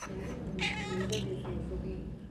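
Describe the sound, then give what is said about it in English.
A pregnant cat named Magpie at Battersea Dogs and Cats Home lets out a long, drawn-out meow that wavers and rises, fairly loud, over a steady low background hum. “There's a cat that's come into Battersea Dogs and Cats Home just this week.”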